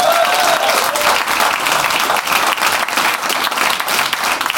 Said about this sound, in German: Und ähm, ja, macht mal einen riesengroßen Applaus für den Mulaffen-Podcast!